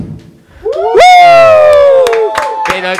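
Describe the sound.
A loud, drawn-out cheering shout rises and slowly falls over scattered sharp claps, with a lively crowd of voices whooping and applauding.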